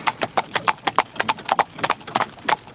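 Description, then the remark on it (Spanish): Horse hooves of a carriage arriving and coming to a stop clip-clop in a quick, steady rhythm, a crisp sharp clop roughly every fifth of a second, with no one talking over them. “me acabo de bajar de la, de la carroza”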